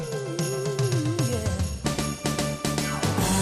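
Upbeat festive Christmas pop music with bright jingling bells shimmering throughout, a gliding melody at first, then punchy rhythmic hits driving a steady beat; loud, with no talking.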